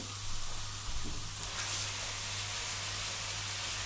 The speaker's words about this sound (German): So. Wenn wir das jetzt hier schön vermischt haben, dann kommt das Ganze in die Pfanne zum scharf anbraten.